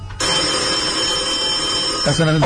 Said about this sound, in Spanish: Sonaba el teléfono.